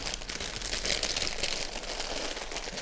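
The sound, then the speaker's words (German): A crisp packet crinkles and rustles steadily for a few seconds as it is set aside after a portion is taken out for meditative eating, fairly loud, with dense crackling plastic sounds and no voices. “Und deshalb lege ich die Packung zur Seite.”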